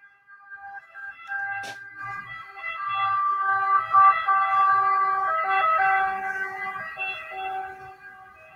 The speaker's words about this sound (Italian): aspettate che passa l'ambulanza che deve venire a prendere nonno, aspetta.